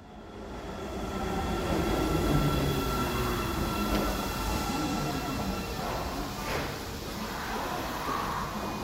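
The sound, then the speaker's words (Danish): A subway train rumbles steadily through the underground metro at Namba station, with a dense, continuous roar of wheels and motor and faint high-pitched whines, fairly loud throughout. “Nu er jeg rykket ned øh, fra et normalt tog, og nu rykket ned i øh, i undergrundsbanen i metroen.”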